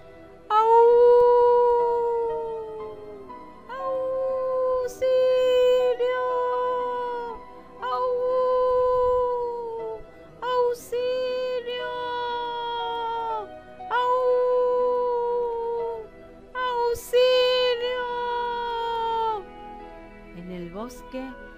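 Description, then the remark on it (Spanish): A high, wavering howl repeats in about eight drawn-out, mournful wails with brief gaps between them, loud, likely a voice imitating a young black wolf cub howling desperately. “cuando el lobito negro, que por una ventana había espiado lo sucedido, empezó a aullar desesperado.”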